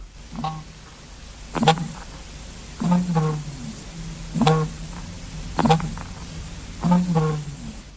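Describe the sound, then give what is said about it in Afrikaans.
An emu gives low, resonant booming calls, repeating about six times at a steady pace, each a short deep throb with a rough onset, moderately loud. “Hulle klink baie soos ons volstruise wat so klink.”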